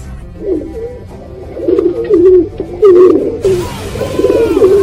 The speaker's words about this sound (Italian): Ah, questo è il piccione.